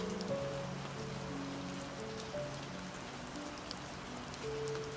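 Steady rain falls without pause, a dense soft hiss with occasional drips and patters, fairly quiet and even throughout, with a faint low hum running beneath it and no voices.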